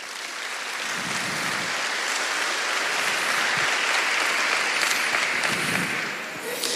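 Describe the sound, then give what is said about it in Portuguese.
An audience applauds the Lord steadily for several seconds, a dense wash of many hands clapping at an even loudness, easing slightly toward the end. “Pode aplaudir o senhor.”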